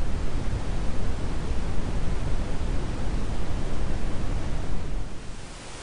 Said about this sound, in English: Brown noise lowers the high frequencies and gives more intensity to the lowest notes, but it has a similar vibe to white noise. It's got a relaxing quality, and studies say that it can help your sleep and improve your focus.